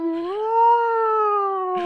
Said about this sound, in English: That was an alarm just to let you know it was noon.